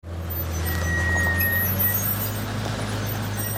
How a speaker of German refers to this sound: Dieselmotoren dröhnen, Panzerketten rasseln über die Zufahrt eines Bahnhofsgeländes.